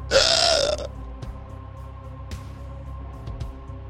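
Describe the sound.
A creature lets out a single loud, raspy, guttural gasp lasting under a second, a desperate last breath as it sinks to its knees and onto the ground, then falls silent, leaving only a low hum and a few faint clicks.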